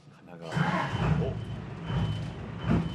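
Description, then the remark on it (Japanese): The engine of the Noshima Churyu Maru tour boat in Japan kicks in after a brief quiet moment, settling into a loud, steady low rumble with a droning hum that carries on without stopping as the boat leaves the pier at a fair speed. “おお船にエンジンが入りましたよくりと船着き場を離れていくかなと思いきや意外と結構な速度で船着き場を離れていきますね”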